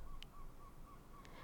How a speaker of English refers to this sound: My windows are open and you can hear the birds shrieking outside,